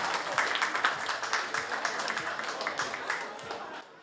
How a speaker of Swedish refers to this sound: Där har ni henne i grönt. Emma Muren. Det kan vara värt en applåd, det tycker jag verkligen.